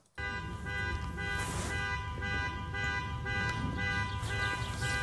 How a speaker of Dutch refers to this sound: Er ging een autoalarm af.